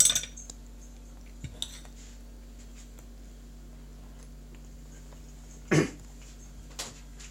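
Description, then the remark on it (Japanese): Quiet clinks and scrapes of a knife and fork on a plate as toast is cut, a few soft taps early on and a louder scraping burst near the end, with no one talking. “ナイフとフォークで食べていきたいなと思いますどっから食べればいいんだろうなんかほんとフレンチトーストみたいな味って書いてあるんでどうなんでしょうねそこら辺はよいしょ今切ってます”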